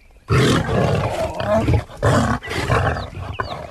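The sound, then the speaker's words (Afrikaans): A lion roars loudly in several powerful, rumbling bursts separated by brief pauses, with a growling edge throughout and no other sounds around it. “Die leeu gee hom 'n boosaardige kyk en brul weer hard.”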